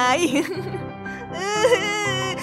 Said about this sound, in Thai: คนเก่งของแม่ไม่ร้องนะไม่ร้อง แม่อยู่ที่นี่แล้วไง